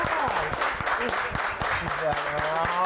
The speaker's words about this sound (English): Slow clap can be so hard here at the Rum Society.